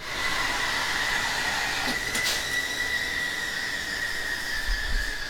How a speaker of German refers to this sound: Wir laufen aus der Produktionshalle raus in einen kleineren Raum. Da stehen rund ein halbes Dutzend Kaffeemaschinen, alle in Betrieb.